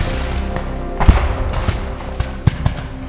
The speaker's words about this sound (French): Dans la foulée, l'artillerie ouvre le feu sur la mairie. Des tirs fusent de tous les côtés. Les hommes tombent, les barricades explosent, les vides se brisent.